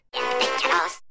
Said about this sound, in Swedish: din knapp låter så här.